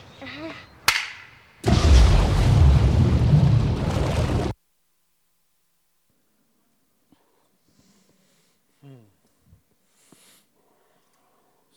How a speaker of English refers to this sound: The gunshot holds no fear. That's good. But you welcome the sound. In fact, it's the sound that sets you free. You are a prisoner on this block until that sound sets you free.